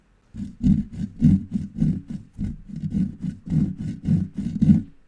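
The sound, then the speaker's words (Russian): A hand saw cutting through a saw as part of a stage magic trick, with steady back-and-forth strokes, about nine rasping pulses in a brisk, even rhythm, fairly loud and heard alone with no talking. “Итак, я распилил пилу.”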